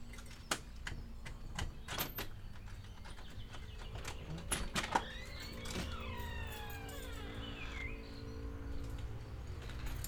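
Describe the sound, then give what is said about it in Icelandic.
Birds sing outdoors, heard through an open window as sweeping chirps and whistles, with sharp clicks and knocks early on and a steady low background hum throughout. “En gætir þess þó að hafa opið hínum einn svo að fugglasöngurinn heyrist áfram.”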